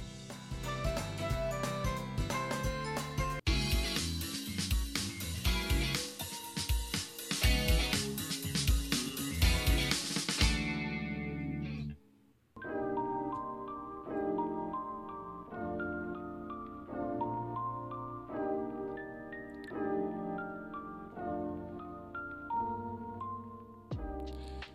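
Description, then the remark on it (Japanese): A music jingle for a Radiotalk app broadcast plays with no talking: a bright, busy opening with steady percussion, a brief cutout near the middle, then a gentler melodic passage of sustained notes that carries on to the end. “はいというわけでジングルをつけてみました”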